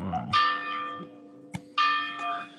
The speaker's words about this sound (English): There's the bells again. That's it. Yeah. The lovely old clock up on a fort.